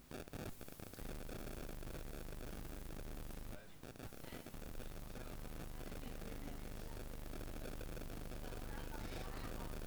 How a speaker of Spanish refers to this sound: Está haciendo interferencia un micro de cable. Apaga ese, apaga este, apaga.